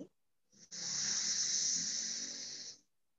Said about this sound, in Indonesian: Perlahan angkat lagi dagunya, buang nafas kiri. Inhale kiri.